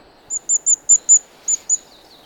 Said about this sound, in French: Voilà, ça, vous l'avez entendu ce petit truc là, tout petit Ça c'est le roitelet Roitelet triple bandeau.